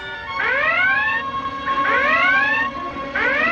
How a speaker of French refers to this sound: Faites taire cette maudite sirène